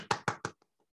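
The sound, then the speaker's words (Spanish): Three sharp hand claps in quick, even succession, applauding guests, each ringing briefly before fading into near silence. No voices are heard. “Démosle un fuerte aplauso a estas queridas compañeras.”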